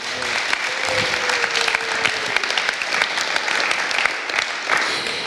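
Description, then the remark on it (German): An audience claps steadily for several seconds to welcome a guest, a dense, even wash of applause with no one speaking over it. “Einmal einen Applaus”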